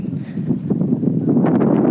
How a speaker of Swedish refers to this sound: Okej, okay, nu börjar det blåsa lite mycket. Så det, det är halvkyligt, men jag kommer hålla mig till t-shirt ändå.